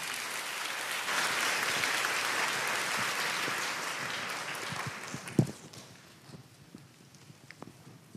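An audience at a special Sunday service applauds to welcome Jesus and a visiting seminary dean, steadily for about five seconds, a dense wash of clapping that then tapers off into a few scattered claps, a single sharp knock and quiet rustling.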